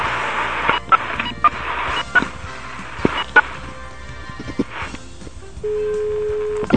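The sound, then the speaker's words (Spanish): A call placed to a father's mobile phone, heard as one steady electronic ring tone near the end, preceded by line noise, clicks and faint background rustling, with no one speaking. “y en su teléfono móvil simplemente no contesta vamos a probar la llamada delante de ustedes en estos momentos.”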